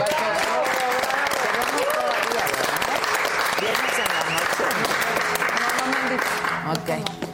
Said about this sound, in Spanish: Bueno, pues aplausos a todos.